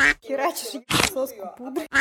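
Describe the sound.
A person imitates a duck with a run of nasal, buzzy quacks, several bursts in quick succession, fairly loud, with a harsher breathy squawk in the middle.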